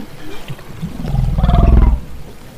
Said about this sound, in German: Die Whoop-Rufe sind nicht nur leise geworden, die Konversationen der Wale sind auch komplexer geworden.